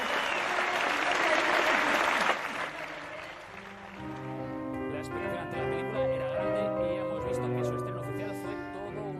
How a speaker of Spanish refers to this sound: Aplausos, gran ovación para Maishabel, anoche en el estreno oficial de la película. Estos son parte de los ocho minutos de aplausos que recibió Sima y Shabel en su estreno en Cinema al Día y así los recogía Teleberry.